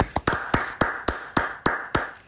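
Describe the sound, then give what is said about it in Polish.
A short applause sound effect: a run of about nine sharp, evenly spaced claps in a steady rhythm over a faint sustained hum, with no voices. “O, jeszcze nawet brawa weszły, także po, poklaszmy sobie, zasłużyliśmy na to.”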